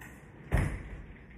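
A single door shuts with a soft, low thud partway through, followed by a brief rumbling decay amid otherwise quiet.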